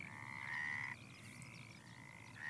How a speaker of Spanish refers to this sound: Eso lo replicó la rana.